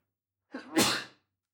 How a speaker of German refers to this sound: Gesundheit. Gesundheit. so ein Männerniesen, wo das ganze Haus zittert. das mache ich immer. Ja, alle aufgewacht im Haus.